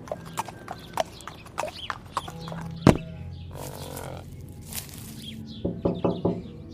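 Steady clip-clop of horse hooves as someone rides a horse to a house, a sharp thud, and some rustling, followed by a quick series of firm knocks on the house's window near the end. No one speaks.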